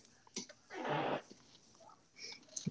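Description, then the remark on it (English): A single noisy, breathy nose blow lasting about half a second, with a few faint clicks and rustles before and after it. “You just blew your nose, didn't”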